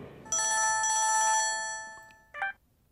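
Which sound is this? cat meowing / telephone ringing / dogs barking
telephone ringing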